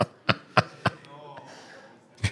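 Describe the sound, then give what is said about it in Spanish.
A voice imitates the sucking sound heard when a fire suddenly went out: three quick, sharp mouth clicks, then a soft drawn-in breathy hiss, ending with one more click. “yo tomé el estaba quemando la tapa de esa cosa y de repente hubo un sonido de como algo chupar y el fuego desapareció”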